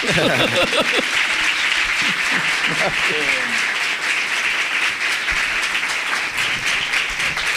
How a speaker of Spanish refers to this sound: Así que quiero un aplauso para el doctor